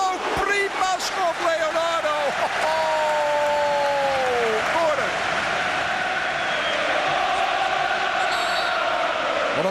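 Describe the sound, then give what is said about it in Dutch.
A loud stadium crowd in Rotterdam roars and cheers continuously after a Feyenoord goal scored by Leonardo, with whistles, shouts and clapping blending into a dense wall of sound, sharp tonal whistle-like cries rising over it early on. “En wat leeft dit publiek, en nu ongetwijfeld thuis, ja, op een fenomenale manier mee met Feyenoord.”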